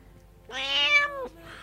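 cat meowing

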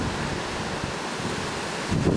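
wind blowing outdoors

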